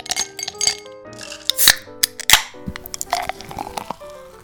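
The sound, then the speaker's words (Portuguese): A glass with a cold Coke clinking, a series of sharp bright taps and knocks with lingering ringing tones, irregularly spaced over a few seconds, with no talking. “salve amigos, mais um dia, mais um coquinha gelada.”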